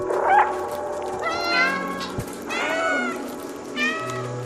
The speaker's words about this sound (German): Das hatte mich auch direkt in den ersten fünf Minuten, als die Einblendung kam, dass man auf Knopfdruck miauen kann.